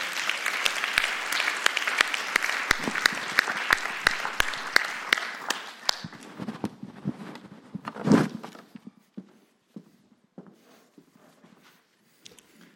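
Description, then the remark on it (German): An audience bursts into dense, steady applause welcoming two guests invited to the front, holding for several seconds, then thinning into scattered individual claps with a brief swell of voices and cheering before fading. “Heißt sie mal willkommen mit einem ganz großartigen Applaus”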